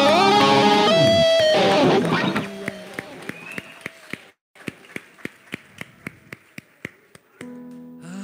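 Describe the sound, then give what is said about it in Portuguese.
An audience bursts into loud applause for the Lord over music and tonal voices, then it settles into a steady run of sharp, evenly spaced single claps. “Dê um aplauso ao Senhor bem forte. Aplauda mesmo forte.”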